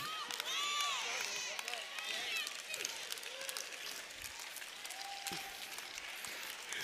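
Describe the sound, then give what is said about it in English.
A large crowd at a sermon applauds steadily with dense, crackling claps, while whoops and shouted cheers rise over the top throughout, giving a lively feel. “I hear all those stockers being grateful for their jobs now.”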